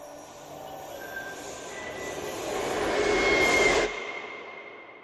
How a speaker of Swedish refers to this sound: Och av alla vagnar som gnisslat längs spåren genom decennierna finns det särskilt ett som sticker ut. Ett tåg som kommit att eka genom historien. Den mytomspunna Silverpilen.